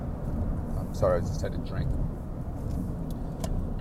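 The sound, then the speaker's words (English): Steady low rumble of road noise from inside a moving car driving over bumps like cat's eyes, fairly loud and continuous, with a person speaking briefly over it. “Uh, uh, apologies about the, the road noise. I'm going over, you know, these bumps, and it sounds like I'm driving over cat's eyes.”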